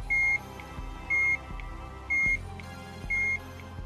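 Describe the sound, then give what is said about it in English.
A loud, high-pitched electronic alarm beep from a Work Boy accessory plugged into a powered-on Game Boy sounds from the speaker on the accessory's underside as its alarm function is tripped. It repeats four times at a steady pace of about one per second, each beep short and sharp over a low background hum. “Plugging it into a powered on Game Boy caused the Work Boy to emit a fairly loud beep out of the speaker on its underside.”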